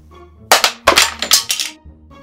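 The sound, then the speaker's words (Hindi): A phone breaking into two pieces, heard as a quick run of loud, sharp cracking snaps over about a second, with no one talking. “oh God मैंने कभी किसी फोन को दो टुकड़ों में टूटते हुए नहीं देखा”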